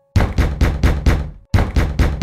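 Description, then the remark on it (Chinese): Forceful, loud pounding on a glass door: five heavy knocks in quick succession, a brief pause, then four more hard blows, each one booming and rattling. No voices. “他真的是卯足了劲在敲，玻璃好像快被敲破了。”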